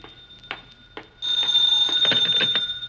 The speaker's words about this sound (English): Now the phone.